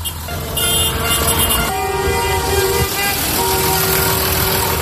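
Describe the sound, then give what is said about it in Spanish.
Slow-moving tractors blocking the roads of a town rumble along while their horns blare in long, overlapping blasts, loud, with the honking continuing without a break over the engine noise. “me subo en el tractor de Alberto”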